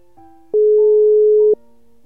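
A single loud, steady telephone ringing tone lasting about a second, as a call is placed to a quiz participant, sounding over a faint, sustained musical bed, with no talking.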